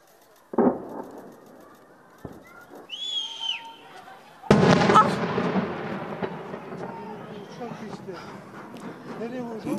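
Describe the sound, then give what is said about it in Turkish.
Two heavy airstrike explosion booms in Tel Abyad as an operation begins with F-16 jets overhead, a short one and then a louder blast that rolls into a long, rumbling roar, with voices talking over it. Large, dense smoke rises from six separate points. “Tam karşımızda büyük bir gürültü duyuldu ve hemen ardından çok büyük, çok yoğun dumanlar yükseliyor şu an Tel Abyad'dan.”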